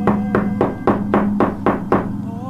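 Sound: knocking on a door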